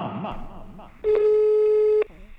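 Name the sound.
telephone ringing tone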